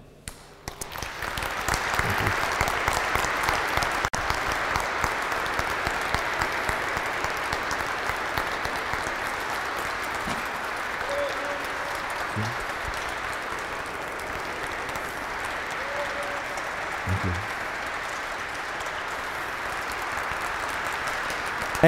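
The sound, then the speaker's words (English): A large crowd applauds steadily for about twenty seconds after the speaker finishes, a dense wash of clapping that starts abruptly, holds at a fairly even loudness, and fades only slightly toward the end. “It's, it's always interesting, and people applaud when it's over, you know.”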